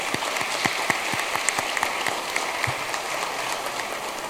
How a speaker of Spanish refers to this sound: También quiero saludar y felicitar a las bancadas que desde nuestro llamado bloque democrático nos apoyaron para llegar a asumir esta responsabilidad. Un fuerte aplauso para cada uno de ustedes.